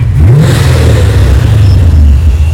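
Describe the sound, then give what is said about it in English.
A man's car engine revs loudly, its deep growl rising and dipping in pitch across a couple of throttle bursts, with a steady rumbling drone underneath and no voices. “I'm so happy I don't have to see him with his sound as car.”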